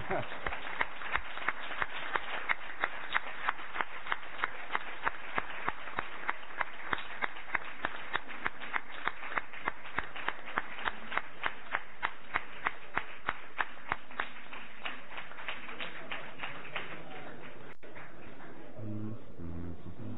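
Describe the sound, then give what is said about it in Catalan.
An audience claps together in a steady, fast rhythm for roughly fifteen seconds, the claps fading out near the end before a voice briefly speaks. “que no ens han sentit tornem a aplaudir perquè no deuen estar al cas”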